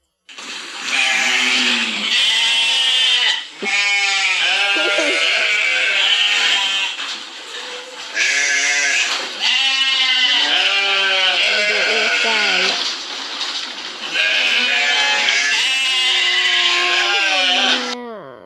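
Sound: sheep bleating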